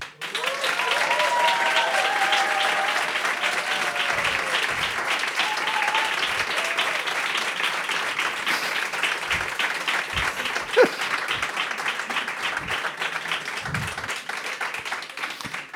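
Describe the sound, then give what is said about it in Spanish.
Sustained studio audience applause welcoming a journalist guest, a dense, steady wash of many hands clapping that holds at an even, loud level for about sixteen seconds, with a few brief whoops early on. “Por eso recibimos con el mejor de los aplausos y de nuevo os voy a pedir, público lunero, que estéis a la altura de las circunstancias, a la altura del periodista”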